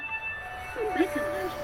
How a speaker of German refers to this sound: Das ist ein Flugzeug und eine Klingel. Das ist eine Glocke oder sowas und eine Ansage.